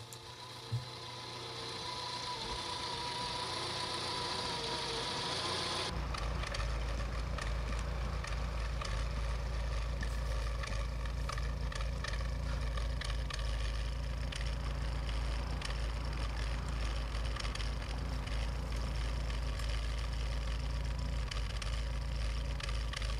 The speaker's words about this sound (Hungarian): Ez kérlek szépen egy Dacia 1310 TX kombi volt koppány kipufogóval.